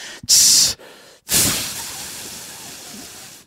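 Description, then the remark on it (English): A person imitates a mule deer snort-wheeze, as used when calling mule deer: a sharp, breathy snort burst, a brief pause, then a forceful blast trailing into a long, steady hiss, fairly loud with no talking. “So when you're calling, sometimes I, I'll one of the things that I've used on mule deer a lot when calling is um, the roaring sound and then that snort wheeze that and then the hissing”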